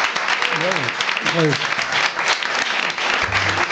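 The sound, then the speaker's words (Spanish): Loud, steady applause from an audience sending off a guest at the end of a show fills the whole stretch, a dense crackle of many clapping hands, with a few voices calling out briefly over it. “Y como gente de bien que nosotros somos, te vamos a despedir con este fuerte aplauso.”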